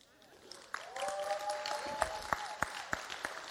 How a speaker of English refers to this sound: Ladies and gentlemen, can we please get a nice round of applause for your shepherds here?